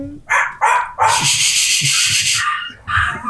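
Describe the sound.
A person imitates a dog, loud: two or three quick yapping barks, then a long, drawn-out howling yelp, and one more bark at the end.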